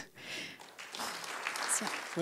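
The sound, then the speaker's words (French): An audience claps steadily, a dense crackling wash of applause that holds for a couple of seconds at moderate volume, with a voice faintly surfacing at the very end. The audience is applauding three guests. “On, peut les applaudir.”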